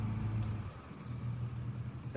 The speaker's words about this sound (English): Right, that's the mail truck coming.